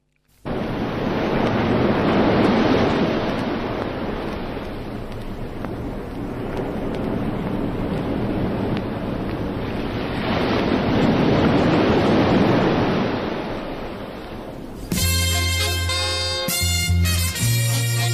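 Loud, continuous roar of ocean surf and wind, swelling twice into heavier crashing waves, then giving way abruptly to music in the final few seconds.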